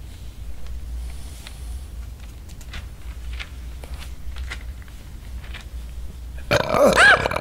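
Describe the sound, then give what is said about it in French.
A low rumbling hum with faint scattered clicks runs for several seconds, then one loud, drawn-out, gravelly burp erupts near the end, from a man playing Luke Skywalker who struggles to digest the green milk of Thala sirens. “Ah, oh, pardon, pardon. Ah, tu sais, je suis un petit vieux, hein. J'ai du mal à digérer le lait vert des sirènes Tala.”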